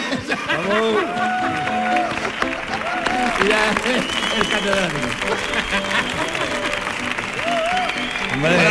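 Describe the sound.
Loud, steady applause from a crowd runs for several seconds, a dense patter of clapping mixed with cheering and overlapping voices throughout.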